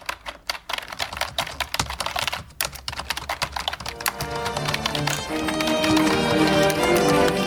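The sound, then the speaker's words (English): Rapid, clacky keystrokes from a mechanical keyboard, typed in quick irregular bursts, with a fuller, steadier backing sound swelling in during the second half. “the gaming keyboards where it makes like the clicky noise. You hit it, and it clicks, and you're just like, clack, clack, clack.”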